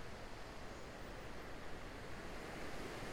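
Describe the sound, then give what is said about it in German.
Gentle, small sea waves wash steadily in a soft, continuous hiss, small surges coming and going without pause. No voices, just the even rush of surf. “Genieße diese wohltuende Umgebung des Meeres. Kleinen Wellen kommen und gehen, wie dein eigener Atem.”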